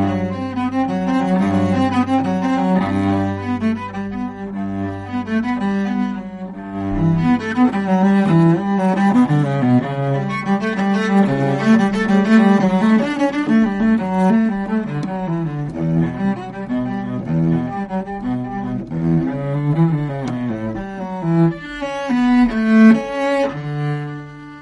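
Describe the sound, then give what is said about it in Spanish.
A solo cello, played live on Capital Radio at the Foro de Recursos Humanos, plays a flowing melody with rich, resonant low notes and sustained bowed tones, steady in volume, with no voices. “en directo con nosotros en este programa con su violonchelo eh, y que suena así en directo en Capital Radio en el Foro de Recursos Humanos.”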